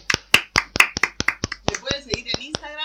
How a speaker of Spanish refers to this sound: Con este aplauso despedimos